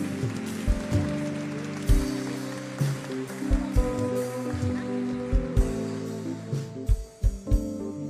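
An audience applauds the Lord at a church service, a dense, continuous clatter of clapping layered over live music with sustained keyboard chords and a periodic low thumping beat.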